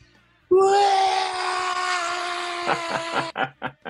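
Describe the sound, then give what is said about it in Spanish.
A voice lets out a long, loud, high-pitched scream imitating an excited shriek heard over the phone after news of an audition, held for nearly three seconds, then breaking into a few short, choppy bursts at the end. “el grito”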